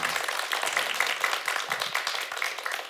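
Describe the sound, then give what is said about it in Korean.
A crowd applauds the person who asked a question, many hands clapping in a dense, continuous patter with no single claps standing out, holding at an even level throughout. “예, 저 죄송하지만 이 질문하신 분을 위해서 박수 한번 부탁드려요.”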